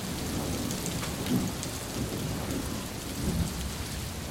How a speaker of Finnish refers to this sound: Ukkos myrsky lähestyy.